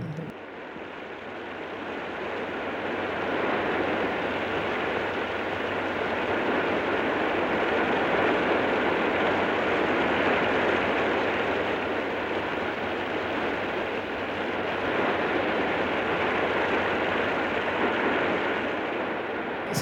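Heavy monsoon rain pours down in the Japanese countryside in a dense, unbroken roar that holds steady throughout, with no voices and only a faint low hum beneath.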